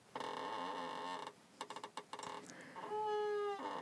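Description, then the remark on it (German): An office desk chair creaks and squeaks as it tilts using its tilt function: a long groaning creak, a quick run of short squeaks, then a sustained high-pitched squeal, all fairly loud with no one talking. “Ja, ihr hört es vielleicht heute die ganze Zeit im Hintergrund, äh, mein Schreibtischstuhl quäkt und quiekt und quokt vor sich hin.”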